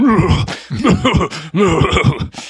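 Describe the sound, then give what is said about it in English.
A voice imitates the harsh, hacking cough of an elderly teacher: three or four loud, rasping bursts with groaning, strained voicing between short breaths. “He had a terrible cough. Uh, that my friend still impersonates very, very well.”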